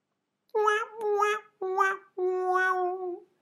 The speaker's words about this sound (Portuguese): Aquele som, não é? De piada fail.